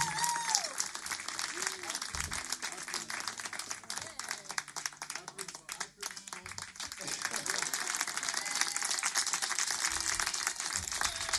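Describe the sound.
A crowd applauds steadily for several seconds, a dense wash of clapping that stays loud throughout, with some cheering and voices mixed in.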